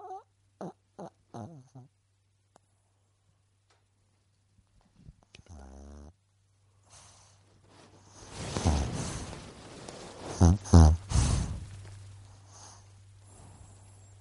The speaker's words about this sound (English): Do you, can you hear the dog snoring on the mic? The mic.